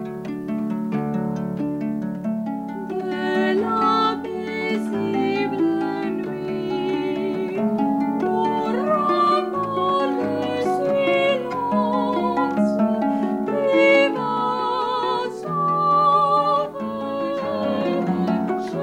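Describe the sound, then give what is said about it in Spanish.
A choir sings Gabriel Fauré's Cantique de Jean Racine, a slow, solemn hymn over a full orchestral accompaniment, as heard in the film Babe, with sustained harmonies and steady, moderately loud volume throughout. No one speaks. “También suena el Cantique de Jean Racine, de Gabriel Faure,”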